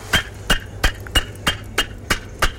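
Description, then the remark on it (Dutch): Old yellow-brown combed bricks, fired very close to the fire in the 1600s, knocked together eight times in a steady rhythm, each a sharp, bright clack, fairly loud, with brief quiet gaps between strikes and no talking. “Ik wil eens wel eens een paar tegen elkaar aanhouden, dat kun je het horen.”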